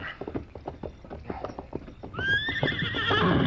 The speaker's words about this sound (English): That other horse is making too much noise.